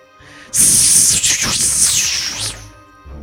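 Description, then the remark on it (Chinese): A loud, sustained snake-like hiss of countless snake tongues shooting out of a monster building's windows bursts in suddenly and rasps for about two and a half seconds, with wavering, sweeping edges, before cutting away to a low hum. “怪物楼的窗户里一下子伸出无数根蛇信子”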